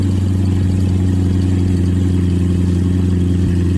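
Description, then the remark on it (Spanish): The engine of a new Chevrolet Corvette C8 sports car rumbles loudly and steadily, a deep, throaty drone with a constant pitch and no clear rise or fall, and no one talking over it. “Es más, te voy a poner el ruido que trae, el motor que trae este.”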